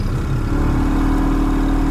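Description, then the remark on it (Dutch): A small boat motor roars loud and continuous, its droning pitch climbing slightly early on before settling into a steady, rumbling throttle with no voices, as the boat goes full speed ahead crossing a ring canal. “Volle kracht vooruit. Ja, de motor zit nog niet aan het einde.”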